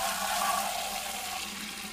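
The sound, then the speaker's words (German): Water splashes and trickles steadily from a grey rock at the centre of a small labyrinth of flower beds in a round meditation garden of a monastery below the Benediktenwand, on a sultry hot day, a continuous bright rushing, fairly loud for the whole moment, with no voices over it. “Aus ihm plätschert Wasser ein Symbol für unsere inneren Kraftquellen.”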